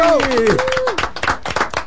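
Several people clap together in a dense, loud burst of quick, irregular claps lasting about two seconds, with a short falling vocal whoop near the beginning.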